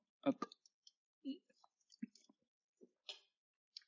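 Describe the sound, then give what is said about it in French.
Someone quietly sipping a drink: a handful of soft gulps and swallows spaced about a second apart, with small wet mouth clicks and lip smacks between them. “Voilà pour ça, c'est l'heure de boire.”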